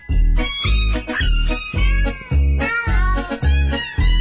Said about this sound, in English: Are these actual cats? I think they're cats that are being assaulted in some sort of unholy fashion. I think they're being squeezed. Is disturbing in a weird way.